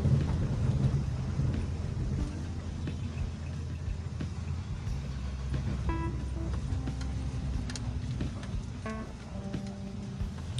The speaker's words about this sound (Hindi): हमें गोबरिया बावड़ी सर्किल पर भी काम बहुत ज़ोर से चल रहा है आपको आवाज़ें आ रही होंगी मशीनों की यहाँ पे अंडर पास का काम चल रहा है